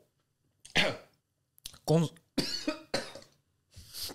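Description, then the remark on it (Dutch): A harsh coughing fit after choking on candy: several loud, rasping coughs in quick bursts separated by short pauses, with throat-clearing mixed in, and no other sounds around them. “oh, die snoep zit in mijn neus nu.”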